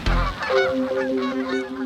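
Geese honk loudly, a quick run of nasal, overlapping calls repeating over a couple of seconds, with no voices.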